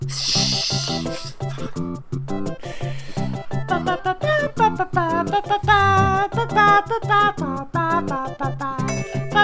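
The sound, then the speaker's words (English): Upbeat video game soundtrack music with a steady, bouncy rhythm and bright melodic lines, playing loud and clear throughout with no voices. “this is the angriest I've been listening to this music.”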